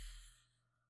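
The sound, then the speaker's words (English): A single sneeze, a sudden airy burst that fades quickly into a breathy tail. It is fairly soft and heard on its own, with no talking. “Bless you.”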